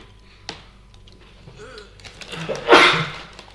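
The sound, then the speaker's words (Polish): A single sharp sneeze bursts out near the end after a brief rising breath, preceded by a quiet click and faint background noise. “Zrób pan zdrowie.”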